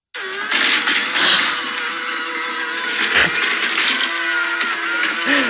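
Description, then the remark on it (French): A robot vacuum cleaner runs loudly and steadily, a harsh whirring motor whine with a brief dip partway through, sounding almost like a blender. No one speaks. “L'aspirateur, c'est bruyant.”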